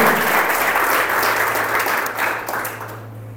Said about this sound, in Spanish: Déselo al Señor ese aplauso fuerte, por favor.